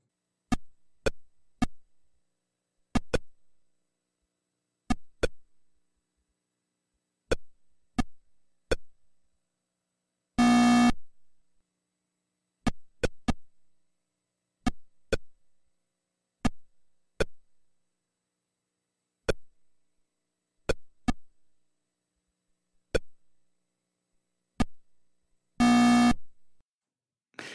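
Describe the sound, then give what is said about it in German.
Sparse electronic beeps of the original 1972 Atari Pong game sound, played on a cassette recorder: short blips at irregular intervals, with two longer buzzy tones marking points. No one talks over it. “der jetzt hier einmal live den legendären Original Atari Pong Sound von 1972 einspielt.”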